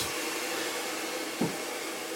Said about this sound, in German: Geräuschkulisse von Föhnen, Schneiden. Tratsch von Damen im Hintergrund.